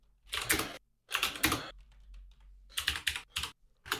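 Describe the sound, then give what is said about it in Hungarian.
Rapid clicking of computer keys in several short bursts with brief pauses between, fairly loud, as someone types quickly on a keyboard to search for something online. “Hallom, te is rákeresel.”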